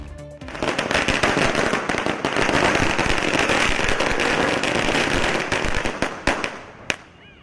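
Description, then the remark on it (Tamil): A long, dense string of firecrackers bursting in rapid, loud crackling pops, continuous for several seconds before thinning into a few scattered final bangs, set off in celebration of the Madurai special court verdict in the Gokulraj murder case, with sweets handed out and a garland placed on the lawyer. “பட்டாசு வெடித்து இனிப்பு வழங்கி வழக்கறிஞருக்கு மாலை அணிவித்து மகிழ்ச்சி”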